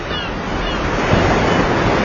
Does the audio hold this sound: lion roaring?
no